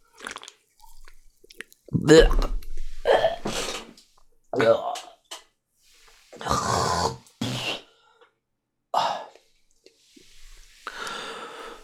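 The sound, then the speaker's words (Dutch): Slurping sips and gulping swallows of a seaweed-flavored alcoholic drink called Spiked N, with wet lip smacks and breathy exhales in a series of short bursts over about twelve seconds, no talking. “Ik ga eens een slokje nemen.”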